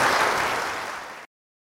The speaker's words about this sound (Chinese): 可是这位年轻人他改过啦，知错能改，善莫大焉。我们真的要给这个年轻人啊掌声鼓励呢。